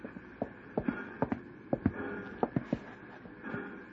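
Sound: horse hooves clip-clopping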